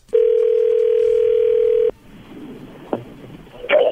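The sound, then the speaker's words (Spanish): A steady telephone dial tone hums loudly for almost two seconds, then cuts to faint line noise with a click, followed by a short burst of dialing beeps at the end. “Ustedes se callan, yo le voy a llamar.”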